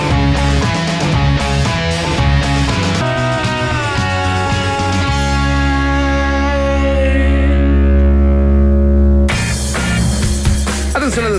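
A loud rock song with driving drums and guitars plays on the radio station 94.1 Rock and CL, then settles into a long sustained chord before the full band crashes back in near the end.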